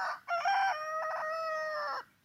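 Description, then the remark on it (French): A rooster crows once on a cool, windless morning after a light frost, a loud cock-a-doodle-doo lasting nearly two seconds, with a rising opening and a long sustained, slightly falling finish, heard alone with no talking. “Ah, ça fait du bien hein, d'entendre le coq.”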